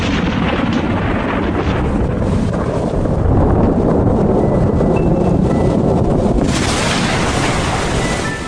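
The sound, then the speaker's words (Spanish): Rough sea waves around a ship at nightfall churn and crash continuously, a loud, dense roar of surf mixed with gusting wind that swells and surges without pause. “Al anochecer, cuando ya no podía ver las luces del puerto desde su camarote, Garcés notó que el mar empezaba a agitarse.”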